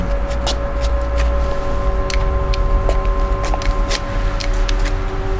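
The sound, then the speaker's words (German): At night outside a residential building, a doorbell buzzes continuously while someone rings it over and over, with sharp clicks and knocks repeating irregularly on top of a steady low rumble. “Nora steht bei Nacht vor einem Wohnhaus und klingelt Sturm.”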